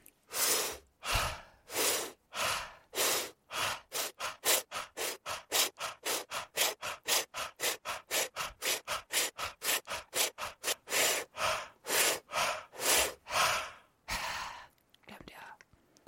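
Heavy breathing exercise: loud, forceful breaths repeated in a steady rhythm, roughly two per second, slower and deeper at the start and end, then fading to quiet breathing.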